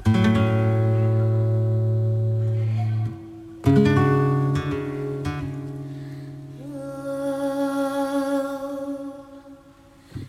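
A flamenco song with two singers: long, sustained sung notes, a brief pause near three seconds, then more held lines that waver with vibrato and melismatic turns, loud and steady throughout.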